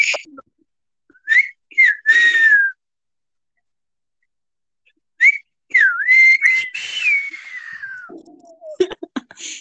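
person attempting to whistle

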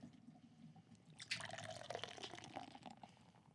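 beer being poured

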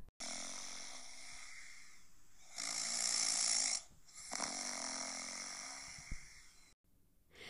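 loud snoring

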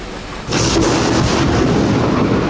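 rainstorm with thunder

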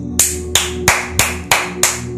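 applause

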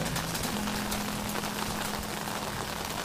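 rain falling outdoors

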